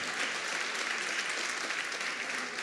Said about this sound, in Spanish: Es mi mamá, es muy apasionada y está bien. Ahora, fíjese bien, Den un aplauso a mi mamá.